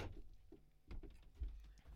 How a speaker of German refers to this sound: Er kommt zur Tür rein.